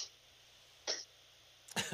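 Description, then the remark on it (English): Two short, harsh coughs, the first a single burst just before the midpoint and the second louder and breathier near the end, with quiet background noise between. “I'll start coughing. right in your SWAT car. Oh, God There it is.”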